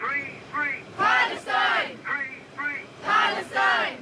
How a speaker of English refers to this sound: This is the sound of a sort of boisterous crowd on a London subway train on their way to a pro Palestinian rally last week.